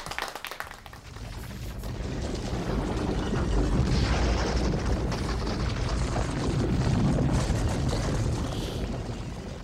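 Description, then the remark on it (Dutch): A deep, continuous rumbling roar of the giant rolling boulder from the film Indiana Jones, heavy and loud, swelling after a brief start and grinding on steadily for the whole stretch with no voices. “De rollende steen uit Indiana Jones.”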